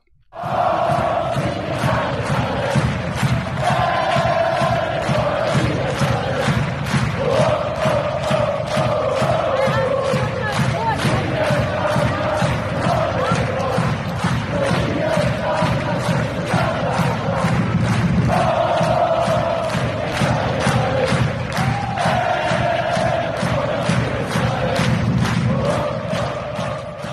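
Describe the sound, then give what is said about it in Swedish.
A loud crowd cheers and chants steadily for nearly half a minute, voices rising in repeated sung phrases over a fast, regular beat of clapping or stomping. “Kan jag få en jubel på det här?”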